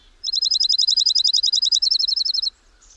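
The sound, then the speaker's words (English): A dark-eyed junco sings a rapid, even trill of bright, high chirps, some two dozen notes over about two seconds, clear against a quiet background. “Letter to a Dark-eyed Junco”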